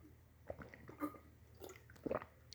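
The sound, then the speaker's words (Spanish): Someone takes a few quiet sips of water and swallows, producing soft, wet mouth clicks and gulps spread over a couple of seconds, with no talking. “Eh, como siempre digo, Traguito de agua para celebrar que estamos vivos.”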